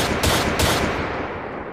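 A loud burst of machine gun fire from a video intro: rapid, rattling shots with two sharper cracks early on, then a dense clatter that keeps going without a pause. No one speaks.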